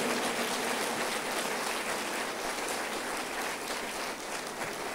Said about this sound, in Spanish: Dele otro aplauso.